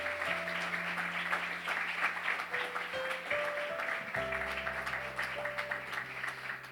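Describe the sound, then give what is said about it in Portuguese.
An audience applauds the name of Jesus, a dense wash of clapping that holds for several seconds while sustained organ or keyboard notes play underneath. “Aplauda o nome dele, aplauda esse Jesus.”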